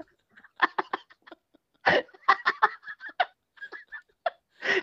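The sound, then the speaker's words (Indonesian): A voice lets out a rapid string of shrill, startled squawks like a chicken, several short honking bursts in an uneven rush, fairly loud with brief gaps between them. “kagetnya ayam.”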